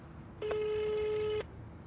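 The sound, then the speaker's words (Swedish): A phone call to the speaker's wife ringing through a speakerphone: one steady, slightly tinny ringback tone lasting about a second, then quiet line hiss, with no one talking. “Är det okej okay om jag ringer? Ja, du får göra på högtalaren i så fall.”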